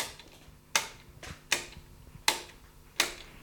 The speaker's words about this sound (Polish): Nad nimi mamy takie trzy przyciski, z których jeden wyłącza drugi. Wydają taki dźwięk.